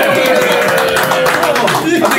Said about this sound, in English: Give applause for that.